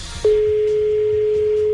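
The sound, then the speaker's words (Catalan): A phone line ringing out on the caller's end: one steady, loud electronic tone held for about a second and a half, with no voices and no answer. “ja veuràs que no, que no el pot agafar, tu.”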